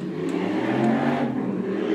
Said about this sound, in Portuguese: Ok, acabaram de ouvir esta moto que está mesmo com coisas de aparecer,